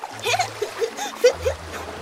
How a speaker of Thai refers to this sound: เออเอาละเอาละถ้างั้นเดี๋ยวเราพายเรือไปดูทางอื่นกันบ้าง